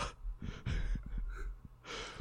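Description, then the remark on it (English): A voice imitates the cartoon character Pegasus's sharp, shocked gasp: a quick breathy intake followed by airy, strained breaths, fairly loud, with a second rushing breath at the end. “he does, he does, and he like, has the oh! best gasp.”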